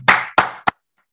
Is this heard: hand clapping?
yes